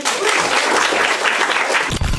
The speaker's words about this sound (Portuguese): Pessoal, uma salva de palmas pra